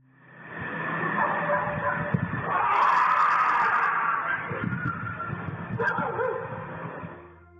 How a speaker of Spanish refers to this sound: Tenemos en una capa el sonido ambiental, en otra capa el sonido de los perros que están por allí